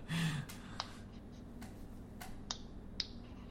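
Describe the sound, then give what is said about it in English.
Several knuckles cracking in a loose, irregular series of sharp, dry pops, distinct against a quiet background hum, with no talking. “Yeah, I just heard slapping. Oh, I cracked my knuckle.”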